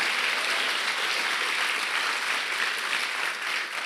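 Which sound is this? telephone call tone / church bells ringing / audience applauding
audience applauding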